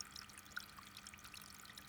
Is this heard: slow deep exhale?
no